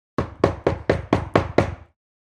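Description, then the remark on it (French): Six firm, evenly spaced knocks on a wooden door, loud and delivered in a quick steady rhythm with no voices present; the knocking is a little harder than the first time, in cold pouring rain. “Pinocchio prit son courage à deux mains et frappa à la porte un peu plus fort que la première fois”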